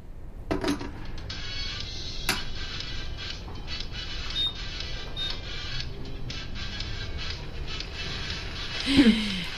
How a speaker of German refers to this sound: Möchtest du noch einen Tee? Ach ja. Ja? Tee geht immer. Okay, dann setze ich mal noch einen Tee auf.